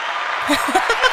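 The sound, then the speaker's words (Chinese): A steady wash of crowd applause fills the short stretch, with scattered voiced cheers and whoops rising over it partway through. “有没有听到很多观众声？”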